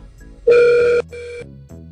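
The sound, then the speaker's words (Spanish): A telephone rings loudly in two close bursts, a steady harmonic electronic tone cutting in and out, with faint background noise and no talking. “Ah, antes de ser interrumpido por el ring del teléfono”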